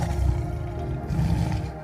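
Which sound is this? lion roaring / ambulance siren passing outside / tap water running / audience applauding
lion roaring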